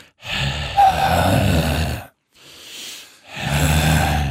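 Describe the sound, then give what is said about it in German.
Deep, noisy belly breathing exercise, breathing into the belly with the tongue on the palate: a long, loud rasping exhale, a brief quieter intake, then another heavy voiced exhale, with no words spoken. “haben wir dieses Thema auch durch mit dem Atmen. Also Innenbauch, wir machen es nochmal zusammen”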